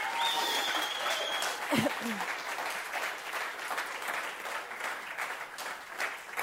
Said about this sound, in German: Dankeschön. Ein Applaus.